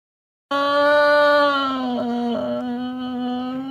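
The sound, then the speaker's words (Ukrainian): A person, an animal in a cage, quietly howls an imitation of an air raid siren while banging a wheelchair against the wall: one long, steady, mid-pitched wail held for about three seconds, wavering briefly midway, with no talking over it. “… б'ється інвалідним візком об стіну і тихенько виє сигнал повітряної тривоги.”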